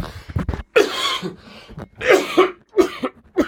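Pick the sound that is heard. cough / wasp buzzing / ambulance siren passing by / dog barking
cough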